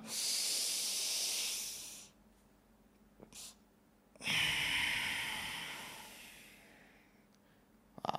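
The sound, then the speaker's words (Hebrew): A breathing exercise: a long, airy breath drawn in until the lungs are full, a short quick extra sniff after a pause, then a long, steady exhale that slowly fades. No one speaks; the breathing is loud and hissy. “זה נשימה שבה אנחנו מנפחים את האוויר ומייצר משהו כמו בלון, לוקחים אוויר מלא, וכשנגמר לנו האוויר, מסניפים עוד קטנה, ומשחררים.”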